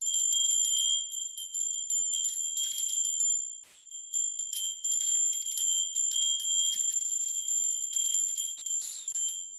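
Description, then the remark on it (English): Small bells ring continuously in a bright, shimmering jingle with sustained high tones, briefly dipping before resuming; no voices, just steady ceremonial chiming, rung to call in the spirits at the start of a ceremony. “And I'm going to do that for this purpose with bells.”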